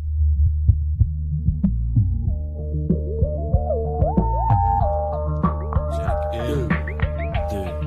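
Instrumental intro of a French rap track from a 2003 maxi single: a deep, throbbing bassline with steady, evenly spaced kick hits and a bright synth melody climbing over it, played loud with no vocals.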